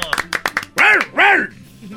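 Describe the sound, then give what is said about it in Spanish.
A person imitates a dog with two loud, drawn-out vocal barks, following a quick flurry of short sharp sounds. “¿Puedes hacerle como un perrito?”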